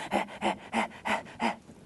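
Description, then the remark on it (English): A person deliberately breathes in heavy, fast, breathy pants, five quick rasping breaths in a steady rhythm, fairly loud, imitating someone who has just run into a room. “Um, tell me if you can, if, uh, I'll do uh, very aspirated breathing so it picks up.”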